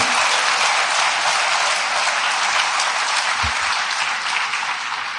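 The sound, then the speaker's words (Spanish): A church audience at Nueva Vida applauds first-time visitors together in sustained, steady clapping that fills the whole stretch at an even, fairly loud level, with no talking over it. “Esta gente merece un aplauso.”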